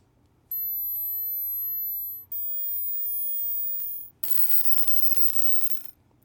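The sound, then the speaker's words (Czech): A hearing test recording, one that every 20-year-old should be able to hear, of three steady, piercing tones, each lasting about two seconds with brief gaps, stepping progressively higher in pitch. The tones are loud, with no talking. “Tohle je totiž eh, zvukový záznam, který by měl slyšet každý 20-letý.”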